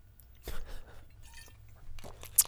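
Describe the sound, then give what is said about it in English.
Someone takes a swig of Bombay Sapphire gin: a few quiet, wet sips and swallows, ending in a sharp little mouth click, with no talking. “So I guess I'm gonna go ahead and take a swig of this delicious uh, Bombay Sapphire uh, for for for cool and refreshing summertime sips.”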